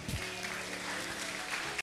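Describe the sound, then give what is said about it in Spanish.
An audience at a church sermon applauds the Lord with steady, dense clapping that stays at an even, fairly loud level for nearly two seconds before cutting off abruptly. “Sí, dele un aplauso al Señor, eso me encanta.”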